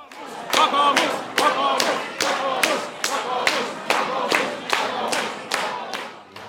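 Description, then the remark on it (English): A crowd on Finnish parliamentary election night roars and cheers steadily, with loud rhythmic clapping or stamping beating out a regular pulse about twice a second under the massed voices. “Um, but let's have a listen to some of the atmosphere from election night.”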